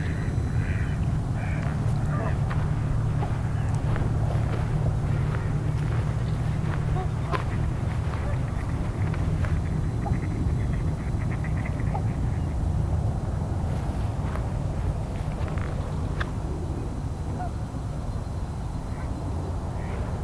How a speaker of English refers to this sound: do hear a widgeon fairly far off. There's one here somewhere.